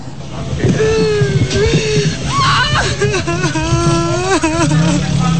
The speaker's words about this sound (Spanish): A pesar de no ofrecer declaraciones, la madre del menor irrumpió en llantos al escuchar la decisión del tribunal.